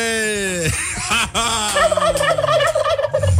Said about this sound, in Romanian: Așa Deci încă o dată uh, curcanul